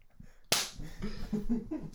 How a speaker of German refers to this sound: Ich klatsche. Darf ich dir ins Gesicht klatschen?